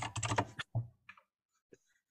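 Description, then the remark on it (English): Rapid clattering keystrokes on a computer keyboard, loud, in a quick burst followed by a few scattered single taps with pauses between them. “You can hear me typing?”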